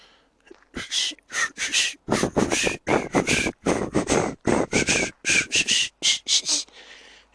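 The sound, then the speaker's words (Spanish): On Thursday 26 August 2021, someone whistles the Soviet national anthem in a breathy, airy way, with little clear pitch, as a steady march-like string of short, loud bursts with no talking. “Me encuentro, me encuentro silbando el himno de la Unión Soviética.”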